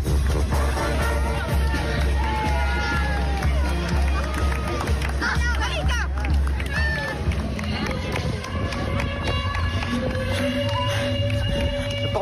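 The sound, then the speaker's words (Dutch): Steady crowd hubbub and scattered voices of spectators lining the Padmos singel on the route of the Singelloop running race, with continuous babble, occasional whistles and calls rising above a constant low rumble. “Kijk, supporters langs de kant.”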